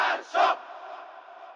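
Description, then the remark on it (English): A large crowd of Iranians revolting against the Shah in 1979 chants "death to the Shah" in unison, two loud shouted bursts in quick rhythm, then a sustained murmur of many voices trailing off, reverberant. “The crowd shouted death to the Shah.”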